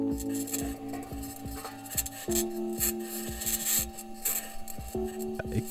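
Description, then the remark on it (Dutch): The wheels of a Mars rover driving over Mars grind and rattle with a steady, rhythmic clicking, over a sustained metallic squeal and whine from the suspension. The sound is continuous, with no voices. “wat je hoort is gewoon letterlijk het geluid van een robotje die rijdt over Mars.”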